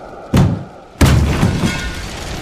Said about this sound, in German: Boah, ich knall die Tür auf.